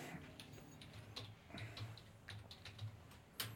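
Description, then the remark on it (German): A steady run of quick, light taps on a computer keyboard, with irregular clicks and one sharper keystroke near the end, over a low background hum and no talking. “Muss man hier mal tippen.”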